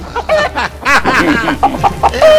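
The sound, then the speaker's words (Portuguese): A small flock of chickens clucks busily, short overlapping calls tumbling over one another, fairly loud and steady throughout, with no one talking. “gostaria de levar dentro do ônibus, vindo pra rádio, as suas galinhas”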